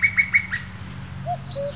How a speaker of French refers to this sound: Juste après la ponte, la femelle coucou pousse son cri et le mâle lui répond, comme pour confirmer que tout s'est bien passé.